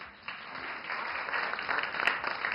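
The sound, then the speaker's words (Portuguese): A crowd breaks into applause, a dense wash of many hands clapping that swells slightly louder over a couple of seconds, heard alone without any talking. “Eu quero aplausos.”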